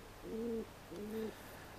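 A feral pigeon coos twice, two low, soft, rounded phrases of about half a second each with a short pause between, against a faint background hiss.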